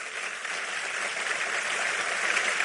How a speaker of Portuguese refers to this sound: Esses aplausos é para ele, tem que ser forte.